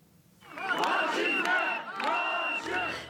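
Members of CHP, Turkey's oldest party, protesting in Turkey shout slogans in unison that the fight will continue, loud rhythmic chanting that swells in two or three surges with many overlapping voices.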